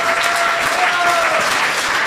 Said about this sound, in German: Aber, ich, glaube aber ich, hätte gerne von allen hier nochmal einen fetten Applaus, dass die Steiermark heute hier in the building ist.